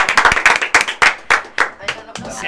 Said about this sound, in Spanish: Un aplauso, un aplauso. Vamos, loco, aplauso